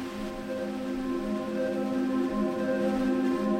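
Steady, dense rain hiss fills the whole stretch at an even loudness, with a sustained low musical drone running underneath.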